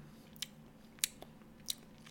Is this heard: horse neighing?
no